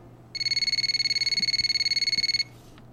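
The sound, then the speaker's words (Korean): A single electronic telephone ring as a call goes unanswered, a rapid high-pitched warbling trill lasting about two seconds, clear, before it cuts off into near silence. No voices. “전 용기를 내 다시 전화를 했습니다.”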